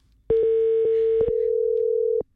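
A steady telephone ringback tone sounds as the Nosotras Radio program calls its guest for the night: one continuous mid-pitched tone about two seconds long, loud and clean, with no one talking over it.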